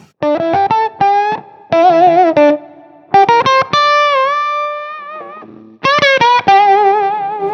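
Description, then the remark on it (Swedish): A heavily fuzzed electric guitar played through an octave fuzz pedal with a lot of drive plays choppy riffs and sustained notes with a thick, buzzy octave-doubled tone, loud, with no voices. “man får väldigt mycket oktaveffekt även om man kör mycket Drive så är den väldigt tydlig”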